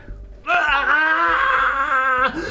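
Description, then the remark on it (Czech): An old woman's long, anguished wailing scream, heard muffled from inside a room, rises and wavers for about two seconds, loud and strained, then breaks off abruptly. “Mm-hmm hrozný ženský uh, eh, starý křik.”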